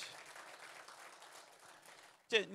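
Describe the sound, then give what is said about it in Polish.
An audience applauds to encourage the Russian-speaking people from Ukraine present, with steady, dense clapping that holds at an even level for about two seconds, then a voice breaks in loudly as the applause continues underneath. “Nie klaszczemy wam, tylko klaszczemy Bogu za was.”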